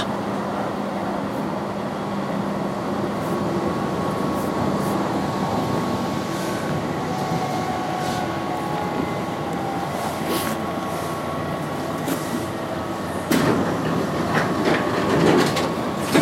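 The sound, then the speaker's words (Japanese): A crowded Metro subway train rumbles steadily along the rails, a dense low roar with faint rhythmic clacking and a few sharp metallic squeals near the end. No one speaks. “メトロって定員なし詰め込めば詰め込むほど入るからな”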